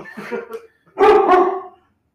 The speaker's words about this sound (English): He's a big ass puppy. Oh yeah, he's big.